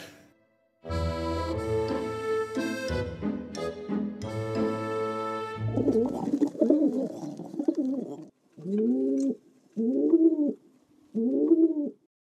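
City pigeons coo in low, throaty rolling calls, ending in three evenly spaced coos, after a brief stretch of sustained, steady tonal sound.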